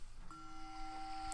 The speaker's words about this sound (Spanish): Entonces, y eh, mola porque te puedes poner una cascada y luego cuando empieza suena un bong, mira, lo voy a poner para que lo escuchéis.